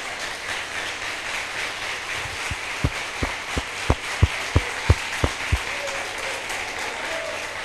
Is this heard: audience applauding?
yes